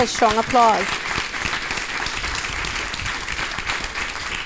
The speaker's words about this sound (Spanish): Un fuerte aplauso.